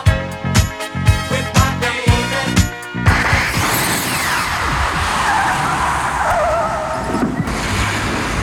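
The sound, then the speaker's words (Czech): A DeLorean car skids with a burst of tire noise, then roars off, its engine revving loudly as it speeds away. Several sharp rhythmic thumps come first. No one speaks. “DeLorean a uslyšíme se za 10 let.”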